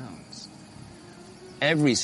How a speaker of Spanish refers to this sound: Oigan eso. El sonido de los monos y todas las aves recorriendo la selva Estoy sobre una pirámide construida por personas que tal vez oyeron estos mismos sonidos.